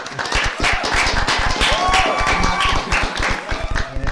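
A small group applauds a guest steadily for about four seconds, a dense patter of claps at even loudness with a few voices and whoops mixed in.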